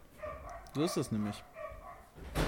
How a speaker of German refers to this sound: Und das sind echt oh, derbe laute Hunde, Alter. Sind die direkt vor deiner Tür oder was? Das ist ja schon. Das ist nur ein Hund, okay.